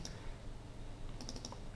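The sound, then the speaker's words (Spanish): Computer mouse clicking: one crisp click at the start, then after a pause a quick run of four or five light clicks, quiet against a low background hum, as a user clicks to add a colour stop to a gradient in design software. “Si queremos añadir un degradado o, una gotita de color más a la que hay, pues haciendo clic”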